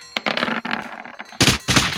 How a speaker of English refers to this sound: All these bullets just go plink, plink, plink, bouncing off the Vesk overplate.